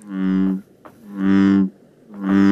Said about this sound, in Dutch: Dit is, dit is ook een kikker, hè? Dat is een brulkikker. Dat is de brulkikker. En dat is eigenlijk het, het, het geluid van, van zijn onderkaak, die, die, het, het, inademen.